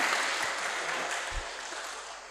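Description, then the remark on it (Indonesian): Steady audience applause fills the whole stretch, a dense wash of many hands clapping at an even level, with a brief low thump partway through and no one speaking. “Untuk itu tidak ada salahnya kalau Anda tepuk tangan lagi.”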